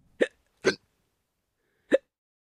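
Three short, sharp hiccups, the first two in quick succession and the third after a longer pause, each a brief voiced gulp heard alone against silence.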